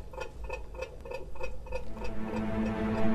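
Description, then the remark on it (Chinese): An alarm clock ticks in a steady, quick rhythm of crisp clicks, about three per second. Halfway through, a fuller, louder wash of sound rises and partly buries the ticking. “呃，嗯，呃，有滴答声。”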